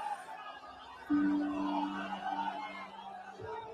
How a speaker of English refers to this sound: people being very excited and obviously cheering the fact that this family was still alive despite what had happened over the last little bit absolutely incredible footage to see.